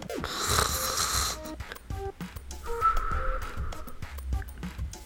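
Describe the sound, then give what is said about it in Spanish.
A man snores slowly, with two long, raspy breaths a couple of seconds apart, steady, with no talking. “Papá empezó a roncar, muy despacio.”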